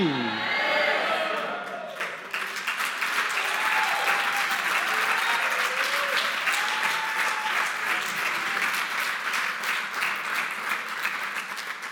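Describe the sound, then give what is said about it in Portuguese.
A large crowd of Christians applauds and shouts continuously, dense clapping filling the space with excited voices rising through it, loud and sustained for the whole stretch. “Dá a ideia que os cristãos só gritam quando não devem.”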